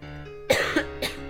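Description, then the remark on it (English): A fairly loud burst of coughing: a sharp first cough followed by two quicker, softer hacks, with a steady low hum underneath and no talking. “Sorry, I need a cough again.”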